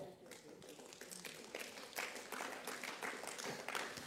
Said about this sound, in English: Oh, it's a good place to clap.